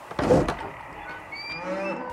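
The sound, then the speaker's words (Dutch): A door of a cow stable on a farm opens with a short heavy clatter, followed by a drawn-out creak and faint squeaks as it keeps moving. “Wacht, hier is een deur.”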